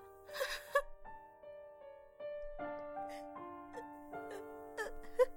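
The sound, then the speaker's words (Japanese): A sharp, breathy, startled gasp bursts out near the start as a person wakes at night from their own scream after a nightmare, then fades into quiet sustained tones with a few soft shaky breaths and whimpers. “自分の悲鳴で目が覚めた夜”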